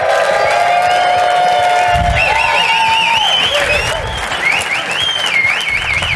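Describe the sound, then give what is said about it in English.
A large live audience at a sales kickoff conference applauds and cheers loudly, with sustained clapping, shouts and rising whoops blending into a dense, continuous roar that holds steady for several seconds. “And also, as you can tell, we are coming to you live from WatchCon, Sales Kickoff Conference. Let the world hear you!”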